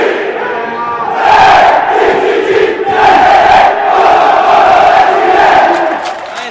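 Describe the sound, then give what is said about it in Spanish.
A huge stadium crowd at a Colo-Colo event in Chile gives a standing ovation in honor of the club's goal scorer and his 216th goal. It roars and applauds for several seconds, the loud wash of cheering swelling in waves with chanting tones rising through it, and no single voice standing out. “el aplauso monumental de este recinto deportivo y el aplaude de pie, por supuesto, con este gol 216.”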